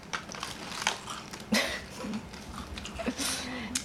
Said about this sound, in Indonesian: Paling isi channel gue adalah untuk ASMR gue makan kacang gitu jadi hmm, kalian bisa dengerin gue makan kacang misalnya